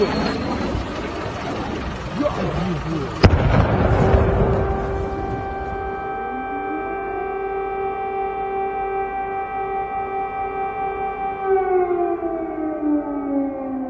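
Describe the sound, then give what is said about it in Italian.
An air raid siren wails steadily in Kyiv, warning that an air bombardment may come at any moment. Its sustained tones rise and hold over a rumbling, noisy background, with a sharp crack early on before the siren dominates. “Mentre registro a Kiev stanno suonando le sirene che indicano che ci può essere un bombardamento aereo da un momento all'altro.”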